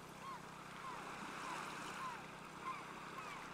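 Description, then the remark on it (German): A steady, soft wash of sea waves rolling onto the shore beside a campsite, a continuous broad rush with gentle swells and no voices. “Aber hey, ich hatte übrigens keine Ahnung, dass der Campingplatz auf dieser Seite direkt am Meer liegt.”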